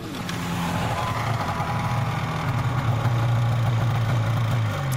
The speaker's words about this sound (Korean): 일단 바이크 소리부터 나오죠. 음. 이 인트로가 뭔가 굉장히 도회적인 느낌이 들지 어, 않습니까?